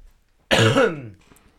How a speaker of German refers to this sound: Ich entschuldige mich in diesem Moment mal kurz dafür, dass es sein könnte, dass ich während des Podcasts ein bisschen huste.